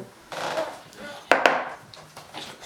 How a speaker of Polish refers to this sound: można młoteczkiem coś pouderzać.